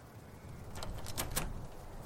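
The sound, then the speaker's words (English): A stuck doorknob is jiggled and rattled, giving a short cluster of sharp metallic clicks over faint background hiss with no one talking. “The doorknob won't move. The door is stuck again.”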